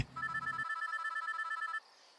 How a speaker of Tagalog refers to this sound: Sa takot ay umiyak akong nagtatakbo papunta kina mami at magsusumbong na sana ako nang bigla na namang mag-ring ang cellphone ng daddy.